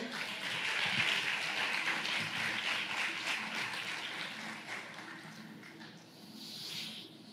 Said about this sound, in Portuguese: Você está aí, você pode aplaudir o Senhor por isso.